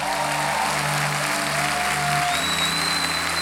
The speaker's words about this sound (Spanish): Si le va a aplaudir al Señor, hágalo con las ganas.